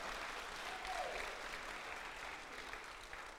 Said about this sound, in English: Big round of applause for this gentleman. Come on.